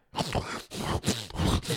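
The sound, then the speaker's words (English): A voice imitates loud, throaty gulping of someone swallowing pizza whole without chewing, about four or five strained swallowing grunts in quick succession, with no other sound around them. “didn't even chew the pizza. No, he, he just, just swallowed.”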